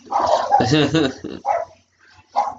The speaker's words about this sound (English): Oh, there goes the dogs.